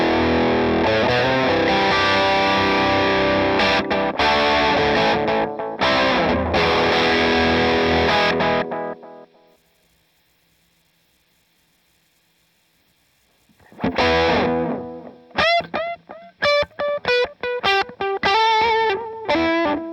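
Distorted electric guitar through a VVco Delayrean delay pedal: thick, buzzing chords ring out and fade to near silence, then choppy, staccato notes return with echoing repeats. No one speaks.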